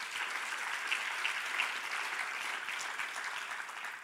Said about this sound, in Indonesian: Berikan tepuk tangan bagi Tuhan kita.